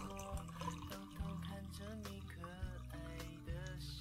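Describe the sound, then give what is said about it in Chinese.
Red wine is poured into a glass tumbler with a quiet, steady gurgling stream and faint ringing tones from the glass, running for about four seconds with no talking. “给你们听倒酒的声音啊，这是红酒的声音。”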